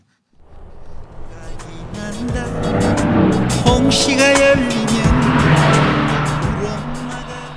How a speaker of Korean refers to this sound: 지나간 차를 한번 따라잡아 보겠습니다. 자, 옆에 차가 지나갑니다. 음악 소리 들려요. 옆 차에서 어떤 노래를 듣고 있을까요? 집중하세요.